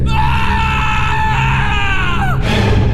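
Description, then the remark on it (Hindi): A man lets out a loud, sustained scream of fright on looking up after lighting an oil lamp at home and seeing a woman in black sitting before him, holding for about two seconds before his voice breaks and drops off, with a low rumble underneath. “कुछ और सोच पाता कि उसने नजरें उठाकर सामने देखा तो डर से उसकी चीख निकल गई”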